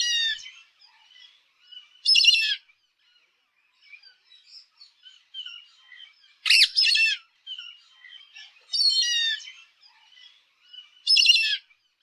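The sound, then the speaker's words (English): Indian grey hornbill calls: four loud, shrill, squawking bursts spaced a few seconds apart, with soft scattered chirps in between and no voices. “The Indian grey hornbill is brownish grey in appearance, having a long graduated tail.”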